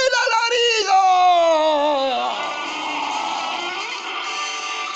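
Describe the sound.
A loud howling scream from a single voice, starting high and sliding steadily downward in pitch for about two seconds before breaking into a rougher, strained wail that trails on.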